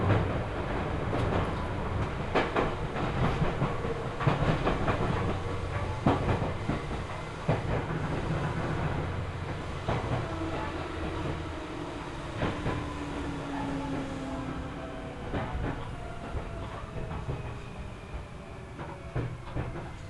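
A Seibu Chichibu Line train running from Hannō to Nishi-Agano rolls along the rails with a steady low rumble, irregular clacks and clicks from the wheels over joints, and faint squealing tones rising and falling as it runs, with no one speaking.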